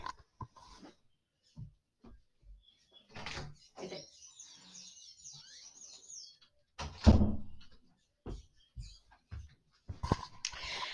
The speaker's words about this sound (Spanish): espero un momento porque le voy a abrir la puerta a mi perro porque si no va a empezar a ladrar.